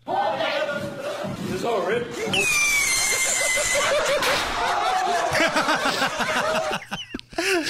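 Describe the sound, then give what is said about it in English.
A bottle rocket gives a high whistling screech as it shoots off, a sharp pop follows, and then a group of people bursts into loud, sustained laughter and shrieks that run to the end. “Listen for when the screech happens and then the pop and then the crowd reaction.”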